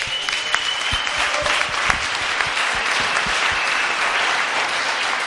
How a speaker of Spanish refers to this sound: Así que eso nos pone contentos y eh, este último aplauso es para todos ustedes,